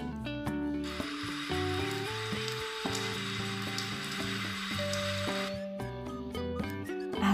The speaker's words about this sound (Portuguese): E o barulho das águas do riacho.